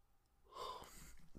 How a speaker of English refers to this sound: wow another yawn. I'm not bored. I promise. I'm not bored being here. I'm just I'm I'm tired.